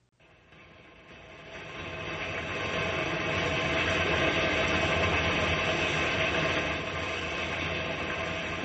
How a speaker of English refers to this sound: there must be something wrong with that engine. It's sure going slowly.